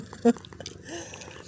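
cat purring into microphone

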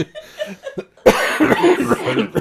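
cough

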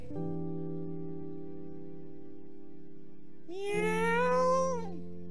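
kittens meowing

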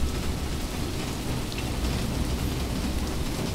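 rain growing heavier

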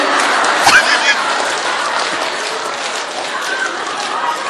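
audience clapping

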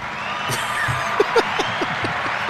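applause sound effect

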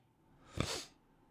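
sniffle

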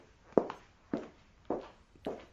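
footsteps walking

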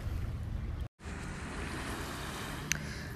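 sea waves washing ashore

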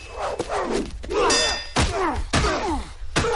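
swords clashing

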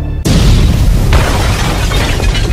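bomb explosion

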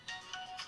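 mobile phone ringtone ringing

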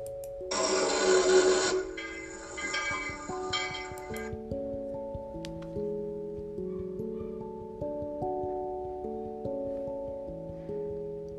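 train

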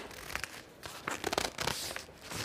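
book pages being turned

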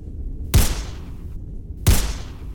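video game gunshots

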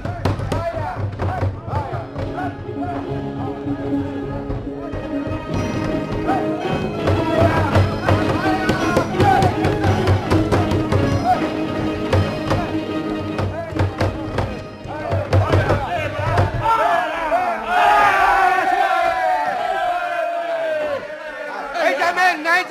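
door being broken down

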